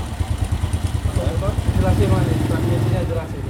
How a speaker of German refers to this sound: ist jetzt gerade auf diesem Motorrad gekommen.